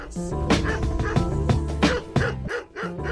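A dog barks loudly and repeatedly, sharp barks coming roughly every half second over a steady tonal background, with no one speaking.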